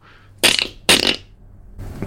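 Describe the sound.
A person imitates a jay's call with two loud, harsh, rasping screeches in quick succession, followed by a fainter third rasp a moment later.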